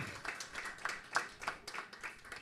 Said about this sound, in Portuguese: Como é para a honra e glória do nosso Senhor Jesus Cristo e unicamente para Ele. Vamos aplaudir mais uma vez ao Senhor.